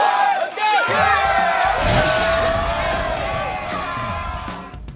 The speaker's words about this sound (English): Let's go ahead and hit the buzzer. It's the final buzzer. The last moments of the show. Okay, here we go. Five, four, three, two, one.